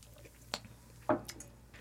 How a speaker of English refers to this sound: Let me take another sip here.